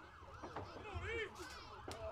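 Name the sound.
ambulance siren passing by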